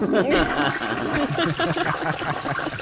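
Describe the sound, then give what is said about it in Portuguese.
A toilet flushes with a loud, steady rush of water that runs the whole time. Voices and laughter come through faintly underneath. “Aí tu, o editor bota um barulho de descarga agora.”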